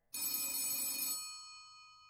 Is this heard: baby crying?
no